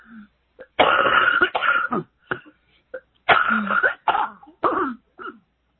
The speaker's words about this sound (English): If you need to clear your throat and, or, huh?